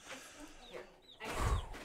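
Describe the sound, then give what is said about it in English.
A few soft, high-pitched peeps from baby chicks that just arrived through the mail, scattered irregularly and fairly faint, with a low thump of handling noise partway through. “do just need some um, chicken or baby chick”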